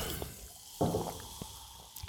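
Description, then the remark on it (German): A person drinking a beverage: sips and swallows with small wet liquid sounds, a sharper gulp near the middle and a few softer slurps after, quiet and without talking. “Es ist eine Katerfolge, es ist eine Herbstblusfolge und es ist eine Folge, in der es wirklich völlig legitim ist, an dieser Stelle mal Wasser, Tee und Kaffee zu trinken.”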